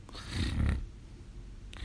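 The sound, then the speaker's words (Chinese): A single soft snore, a low rumbling breath lasting under a second, then quiet with a faint breathy sound near the end. No one speaks. “就在这时，布布倚着他的毛睡着了，发出轻微的呼噜声，”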